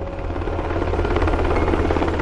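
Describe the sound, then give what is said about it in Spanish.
A loud, steady helicopter drone with a deep rhythmic rotor thump and broad engine roar, continuous, with no voices present: two modified Black Hawk helicopters of the 160th Special Operations Aviation Regiment (the Night Stalkers) taking off from Jalalabad air base at 10 p.m. local time. “Los helicópteros del 160 Regimiento de Aviación de Operaciones Especiales, conocidos como los acechadores de la noche, despegan de la base aérea de Yalalabad a las 10 de la noche hora local.”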